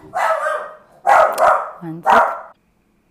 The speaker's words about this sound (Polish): Bardzo Was przepraszam, ale zadzwonił kurier do drzwi. E, i pies się rozszczekał, e, więc e, sorry za ten hałas w tle.